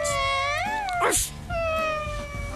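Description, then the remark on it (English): A person imitates a cat's meow with drawn-out, wavering yowls: one long call that bends in pitch, a brief breathy break, then a second sustained call. Fairly loud, with no talking, in a video studio. “That, that's a weird meow if I've, I've heard, ever heard on.”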